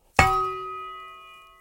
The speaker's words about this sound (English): For example, like that's that's like a big sword made of straight metal. I would say like industrial metal